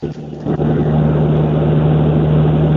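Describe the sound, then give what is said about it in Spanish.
A small airplane engine roars loud, a steady droning hum with a low throbbing tone that swells in after a brief rumble and holds constant, with no voices. “Van avioneta el Pepe. Pepe. Eh, eh, Apaga una turbina.”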